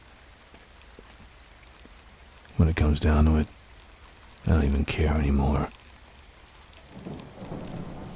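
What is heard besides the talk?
rain getting heavier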